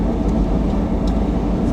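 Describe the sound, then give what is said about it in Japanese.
Steady low engine drone and road rumble from inside a moving kei truck (Japanese mini truck), loud and continuous with no voices, a constant hum filling the cabin. “まあ、車高が全然違うんですけどこの今乗ってる軽トラとねあのその時のね67のワーゲンがね目をつぶるとねほんとねこの軽トラがワーゲンに思いて仕方がないですね本当にね”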